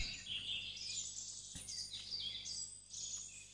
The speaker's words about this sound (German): Die Vögel zwitschern und wir fühlen uns wunderbar wohl.